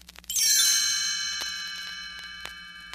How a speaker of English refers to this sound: You will know it is time to turn the page when you hear the chimes ring like this.